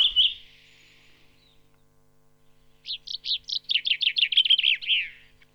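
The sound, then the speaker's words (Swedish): A male common chaffinch sings a bright, descending run of rapid notes that speeds up and ends in a brief flourish, heard clearly after a single short call at the start. “Så bofinken har jättemånga småläten för sig. Sen tar hannen ifrån tårna.”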